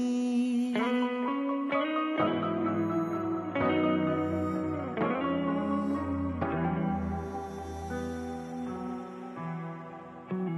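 A pop song plays on its own, with a steady beat, a full band of bass, chords and layered synths, and a bright, effect-heavy sound that swells in distinct sections.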